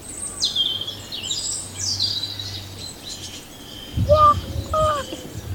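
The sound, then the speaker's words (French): Small birds chirp and twitter in quick, high bursts throughout in the Garden of Eden, with wind, and a couple of louder, clearer calls near the end over a low outdoor rumble. “Vous pouvez entendre les petits oiseaux, le vent,”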